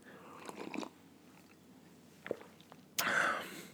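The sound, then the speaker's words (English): Wet mouth noises as someone sips coffee: a few soft slurps and a small click, then a louder, longer airy slurp at the end. No talking. “Thanks for dealing with my slurps.”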